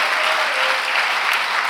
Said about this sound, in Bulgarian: Ако вярваш в това, защо не дадеш на Бога едно мощно дарение на ръкопляскане? О, хайде, ръкопляскай, като че наистина вярваш.